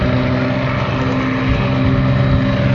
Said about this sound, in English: And the public address is now telling folks in the crowd that they're getting ready to launch the C5.